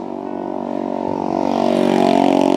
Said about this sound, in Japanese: またなんかすごい音のバイクが近づいてきてますねゆっくりしかもかなりゆっくりのペースで 何なんだこれっていう感じですけれども